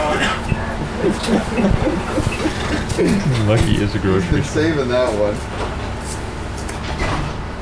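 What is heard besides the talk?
bus doors opening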